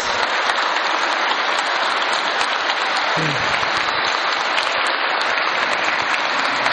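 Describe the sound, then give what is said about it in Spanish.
Sustained applause from an audience for all the mothers present on their day, a dense, steady crackle of many hands clapping at a constant loud level throughout, with no pauses and no voices standing out. “A ver, un fuerte aplauso a todas las mamás aquí presentes.”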